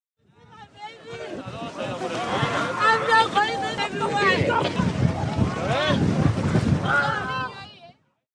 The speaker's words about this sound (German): Ja, wir, wir hören da äh, Migranten äh, auf einem äh, Schiff im Mittelmeer, die gerettet werden und ähm, danach wahrscheinlich an eine europäische Küste gebracht